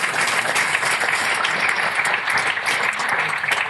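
An audience applauds steadily, a dense wash of many hands clapping at an even, fairly loud level throughout with no voices standing out.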